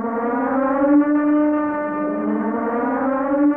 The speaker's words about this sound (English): can you please ring the alarm?